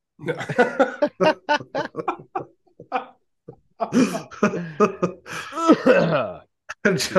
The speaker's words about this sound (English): Sorry. Was, yeah. I thought fuck? it was just going to be a little cough and it ended up being. I was kind of chewing that almost.